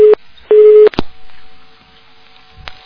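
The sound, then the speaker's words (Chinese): A phone line's busy tone after a disconnection: two loud, steady mid-pitched beeps separated by a pause, followed by sharp clicks and a faint hiss, with no one speaking. “哎呀，断线。”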